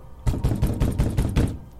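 Someone raps on a door about six times in a quick, steady series. The knocks are close and firm, with no voices, and silence falls after the last one.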